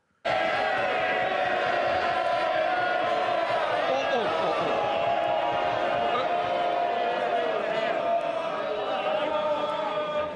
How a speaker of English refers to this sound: Look, it's important I hear. I want to hear both sides, and I don't want this continuous chant. Because if we do, there'll be less people on these benches, and the same on the other side.